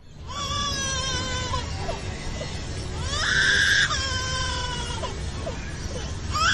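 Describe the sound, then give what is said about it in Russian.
A bird at an Australian zoo imitates a crying baby with a series of drawn-out, wavering wails that rise into a louder, shriller cry midway, continuous over a low background rumble. “В австралийском зоопарке показали птицу, которая разговаривает плачем ребенка.”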